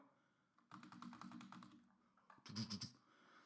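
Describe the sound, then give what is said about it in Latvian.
Rapid, clattery keystrokes on a loud new computer keyboard, a steady burst of typing followed by a brief pause and a final flurry of sharper, heavier key presses. “Man jauna klaviatūra, viņa ritīgi skaļi ir.”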